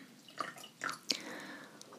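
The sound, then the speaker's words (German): A person pours some water for themselves into a glass, starting with a few small splashes and clinks, then a steady trickle whose pitch rises slightly as the glass fills. No one speaks. “So, ich schenke mich hier ein bisschen Wasser ein.”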